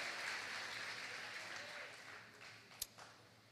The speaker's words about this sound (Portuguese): Você crê nisso? Aplauda o nome de Jesus.